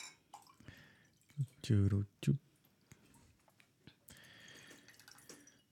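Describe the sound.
Water is poured into a glass in a few short gurgling splashes, with quiet murmuring voices and soft room noise in the background.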